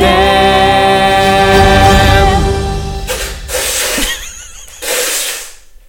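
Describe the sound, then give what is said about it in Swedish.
A few seconds of tonal, sustained music give way to someone blowing their nose: three loud, breathy, honking bursts separated by short pauses, with no talking. “Ursäkta snutningen.”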